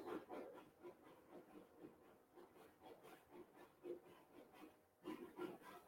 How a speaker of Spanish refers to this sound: ay, mis perritos que rascan